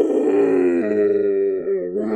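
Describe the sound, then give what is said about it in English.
During a dice game, after a skill check roll, a person lets out a sustained, throaty roar, a voice imitating an animal's bellow, holding steady and loud for about two seconds with a slight waver and dip near the end. “I'm actually roaring.”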